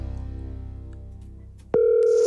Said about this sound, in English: So let's see if I can get him. One ringy dingy, two ringy dingy. I don't know. Nobody picks up the phone anymore